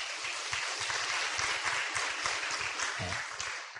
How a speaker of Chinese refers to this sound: 好，我们给他掌声鼓励一下哈。